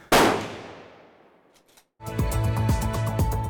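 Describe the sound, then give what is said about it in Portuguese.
A single loud sniper rifle shot cracks out, its echo fading over about a second and a half before a burst of music starts. “Então, a gente pode dizer que ele treina a vida inteira dele para fazer um tiro perfeito.”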